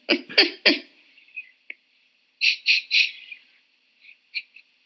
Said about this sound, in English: But, have to uh, excuse my cat. She's meowing in the background now